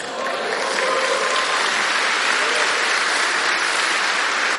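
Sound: audience applauding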